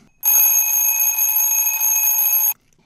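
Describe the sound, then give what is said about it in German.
A loud, shrill alarm clock rings continuously for a little over two seconds, a steady piercing tone with bright harmonics, then stops abruptly. No one speaks. “Und sehr gut wach werden, das kann ich auch. Hören Sie mal rein.”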